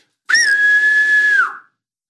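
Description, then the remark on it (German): A person whistles an imitation of the call a black woodpecker makes after landing: one loud, sustained note about a second long, holding a steady pitch before dipping slightly at the end, with no talking. “Und dann landet er und dann macht er.”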